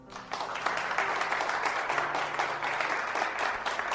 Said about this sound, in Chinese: 车厢里响起了鼓掌声，滴滴，鼹鼠巴士也。鸣笛回应